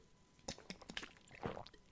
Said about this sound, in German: Vorher trinke ich einen Schluck Wasser, dann fange ich an vorzulesen.